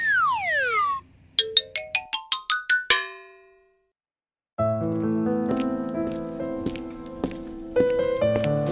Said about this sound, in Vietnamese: Sao nghe nhạc buồn bã quá vậy em?